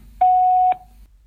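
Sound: voicemail beep tone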